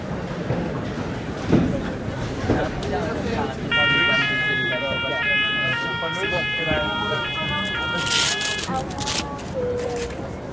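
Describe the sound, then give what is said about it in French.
A funicular train at Val Claret, Tignes, rumbles steadily uphill toward a glacier, heard from the front of the car; a loud, repeating two-tone warning signal sounds for several seconds in the middle before the ride noise carries on, with faint voices in the background. “Le funiculaire monte vers ce glacier qui se transforme et laisse apparaître chaque année plus de roches noires.”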